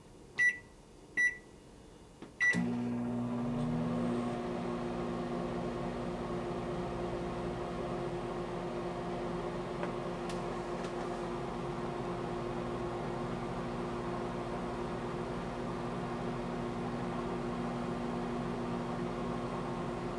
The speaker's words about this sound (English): placed in a sharp carousel microwave and subjected to 30 seconds of microwave radiation